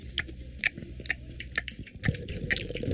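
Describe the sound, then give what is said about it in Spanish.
Wet chewing of food right at the microphone, with crunchy bites repeating in a steady rhythm about twice a second over a low, muffled rumble. Nobody speaks. “¿En serio está comiendo, zorro?”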